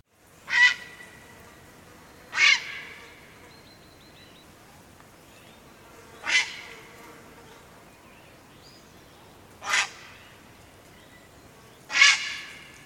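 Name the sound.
grey heron call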